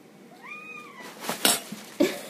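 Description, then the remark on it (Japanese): A cat named Ran meows for tuna, giving a drawn-out, rising-then-falling meow followed by a few short bursts of higher, scratchier cat cries. There is no talking. “ランちゃん声可愛らしく泣いてもあげませんよカリカリがあるでしょ”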